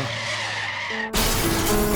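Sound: car tires skidding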